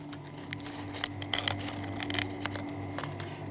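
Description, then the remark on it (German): Crispy jellyfish chips, made in Denmark from jellyfish after two days in alcohol and a dryer, crunching: a string of sharp, irregular crackles and snaps over a steady low hum, with no one speaking. “Man hört, dass sie knusprig sind.”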